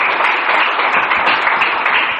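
A crowd applauds loudly and steadily for the Lord one morning, many hands clapping in a dense, continuous wash of sound without any voices.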